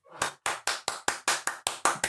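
one person clapping hands

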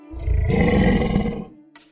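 tiger roar

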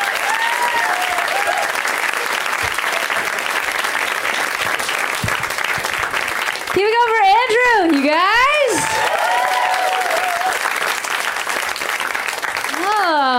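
audience applause and cheering

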